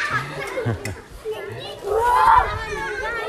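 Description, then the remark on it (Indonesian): Children's voices call and chatter, lively and overlapping, with the bustle of kids playing ball outdoors in the street; no clear ball bounces stand out. “punten anak-anak main bola di jalan”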